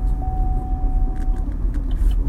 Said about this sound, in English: Oh, I have stuff on the chair, that's why. Oh, okay. It's the passenger seat belt thing. The, um, the, um, that means that I have a cast iron pot sitting on the seat.